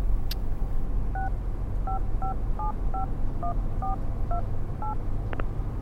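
A string of about ten short keypad dialing tones, each a brief dual-pitched beep, pressed at an uneven pace to call a mobile phone, over a steady low rumble, clear with no talking.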